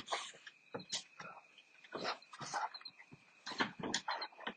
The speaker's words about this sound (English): Both puppy dogs just showed up, as you can tell in the background, I'm sure.